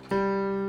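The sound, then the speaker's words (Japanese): A single sustained instrumental note, played as the third harmonic above a fundamental tone, sounds clearly after a brief moment of quiet, holding steady and bright with rich overtones until the end. “これが元の音だとしたら、えー、っとこの本に書いてあるのは12倍音までなんですけどこれの次が第2倍音 オクターブ上そして第3倍音がこれ”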